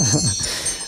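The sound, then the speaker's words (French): A mobile phone ringtone plays as a steady, bright electronic tone across the whole second, with a voice briefly audible underneath at the start. “Il y a quelque chose qui sonne.”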